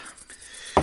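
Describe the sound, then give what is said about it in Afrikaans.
A single quick sneeze bursts out near the end, short and sharp against an otherwise quiet background with faint hiss. “Gesondheid.”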